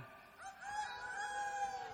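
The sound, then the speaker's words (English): A person imitates a rooster crowing in a church-service reenactment of Peter's denial: one long sustained vocal crow with a steady pitch and slight wavering, moderately loud and heard on its own. “And then the rooster crowed once. Who wants to be the rooster?”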